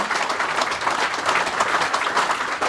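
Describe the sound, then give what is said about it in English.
A crowd applauds steadily, a dense wash of many hands clapping at once, sustained and fairly loud throughout the few seconds with no voices standing out. “round of applause.”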